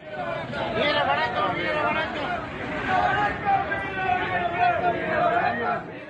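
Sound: crowd chanting slogans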